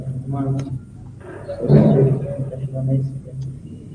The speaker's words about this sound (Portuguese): agora tá passou tá uma moto aqui?